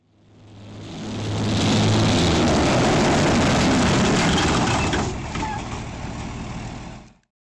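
Heavy tracked military vehicles, Russian tanks and armoured personnel carriers massing at the Ukrainian border, rumble and clatter past, a deep engine roar with grinding, rattling metal building over a couple of seconds, holding loud, then easing slightly before cutting off.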